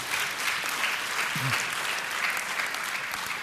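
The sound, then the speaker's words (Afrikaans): A crowd applauds with steady, dense hand clapping that holds at an even level throughout, with a brief murmur of a voice partway through. “Ag gee vir hulle weer 'n lekker hande klap toe.”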